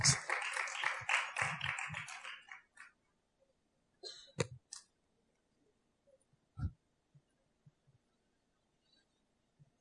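A burst of group clapping, dense and loud for a couple of seconds, then dying away into a few scattered claps and faint thumps.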